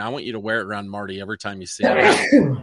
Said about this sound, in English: Bless you, big boy.